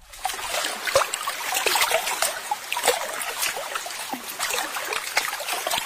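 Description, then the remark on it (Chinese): Water flows and trickles steadily, with a busy babble of bright splashes and gurgles that rise and fall without pause. No one speaks. “我喜欢听水流动的声音。”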